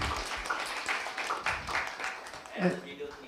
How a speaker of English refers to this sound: so, for the past two years, uh, we've been listen, you know, watching videos, and we really thank the worship team because they've been coming in on Saturdays to do the recordings so let's give them a round of applause to appreciate them.